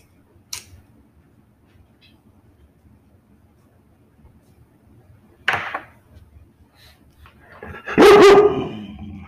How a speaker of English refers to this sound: Oh, hush, puppy.